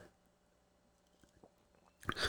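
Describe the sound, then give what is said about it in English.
Someone drinks water: a few quiet, scattered mouth clicks and sips over near-silence, then a short, louder breathy burst at the end. “I'm gonna get a drink of water”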